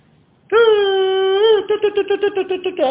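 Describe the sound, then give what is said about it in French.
A loud, reedy shofar blast: one long sustained note, then a quick run of short staccato bursts, ending on a rising tone. No voices are heard. “Voilà le chauffard.”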